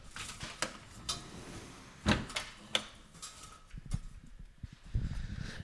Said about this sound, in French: Attendez, on va aller fermer la fenêtre. Il y a un petit bruit comme ça, vous l'entendez On ferme la fenêtre.